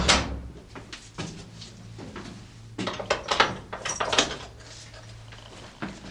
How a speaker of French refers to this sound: nous prenons une petite porte dérobée euh, dans l'église pour grimper dans les hauteurs.